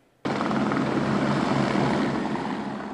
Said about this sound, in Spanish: sobrevoló parte de la frontera en un helicóptero junto a los gobernadores de otros estados